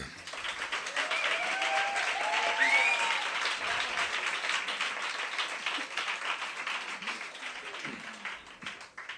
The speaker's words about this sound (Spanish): Vamos a arrancar el bloque central, que es donde tenemos al invitado ilustre, que solemos decir, y por eso vamos a recibir con el mejor de los aplausos al guitarrista de … y también poeta, don ….